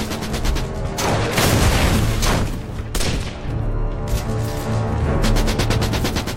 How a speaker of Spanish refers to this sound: La log identifica de dónde proceden los disparos de las ametralladoras alemanas